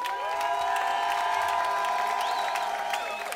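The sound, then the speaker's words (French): A crowd outside a courthouse claps and cheers steadily as five Dernière Rénovation climate activists go up to their trial, with scattered whoops and raised voices rising above a dense, continuous wash of applause. “Ils sont en train de monter, vous pouvez les applaudir pendant qu'ils montent.”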